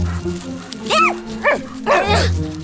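A dog named Doggo, going after a rat, barks three times in quick succession, short yappy barks with a rising-then-falling pitch, the last one longer and rougher, over a steady low hum.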